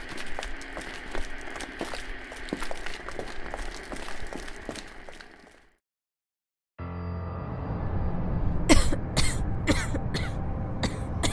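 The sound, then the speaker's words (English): Someone coughs and wheezes, struggling for breath amid dust and smoke. After a short silence, a series of sharp, harsh coughing bursts follows with no talking. “Honestly, I don't know why you're having a hard time breathing.”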